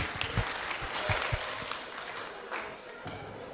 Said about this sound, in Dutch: Nou, applaus voor jezelf.